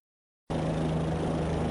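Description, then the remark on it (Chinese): A helicopter's rotor whirs in abruptly overhead after a moment of silence, a loud, steady low drone with a rapid rhythmic chop and a hissing wash above it. “沈西还陷入沉思中，头顶突然出现直升机旋螺桨的声音，疑惑的抬头看去，还没有弄清所以然，上面便放下梯子下来一个黑衣人。”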